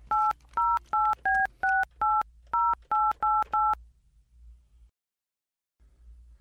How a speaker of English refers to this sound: he, didn't, he didn't click over, so we're gonna call her on her cell.